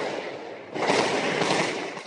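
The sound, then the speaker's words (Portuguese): A dense barrage of gunfire, many shots crackling together into a continuous rattling roar that grows louder partway through, with no voices, during an invasion of a community by Avenida Brasil in Rio de Janeiro, Brazil, on a Wednesday in spring 2016. “Foi muito tiro.”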